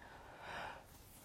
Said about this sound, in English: oh sorry, I'm yawning. I'm not tired, I'm just you know, sometimes I get the yawns.